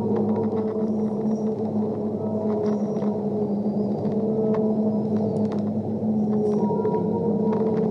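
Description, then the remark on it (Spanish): Underwater dolphin vocalizations: sustained, wavering tonal calls layered with scattered sharp clicks, steady and fairly loud throughout, with no voices present. “agradezco todos los delfines que me han acompañado, por este regalo de luz, de purificación, de perdón, de sanación, de amor y de manifestación.”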